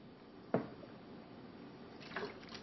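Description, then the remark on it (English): A quiet sip of water, with a sharp click of a glass or bottle near the start, then a soft wet gulp and swallow a moment later, with no talking. “excuse me, I need to get a drink of water.”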